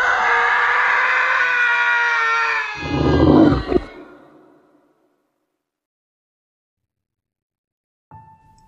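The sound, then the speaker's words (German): A loud, drawn-out scream with strong harmonics lasts about three seconds, breaks into a rough, strained cry and fades into silence. A faint short sound comes near the end. “Nachdem die Schreie verstummt und die Stille allmählich zurückkehrte, hörte der alte Mann noch vereinzeltes Schmatzen aus dem von Mode überwucherten Gewölbe kommen.”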